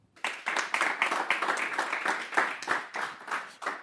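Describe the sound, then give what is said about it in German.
An audience breaks into applause to welcome a guest speaker, a dense burst of many hands clapping at a steady, lively pace that holds for several seconds, with no one speaking over it. “Herzlich willkommen und großen Applaus.”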